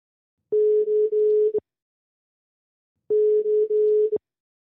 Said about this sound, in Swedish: Så jag tänker att vi tar och ringer upp honom.